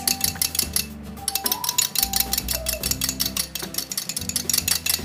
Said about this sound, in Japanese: そしてこれをちょっと小さな泡立て器があるといいですね泡立て器とかあと泡立て器がなければお箸なんかでこうシャカシャカシャカシャカっと混ぜます